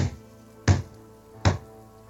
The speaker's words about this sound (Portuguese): a pessoa simpática bate com a mãozinha pequena na porta da Liriel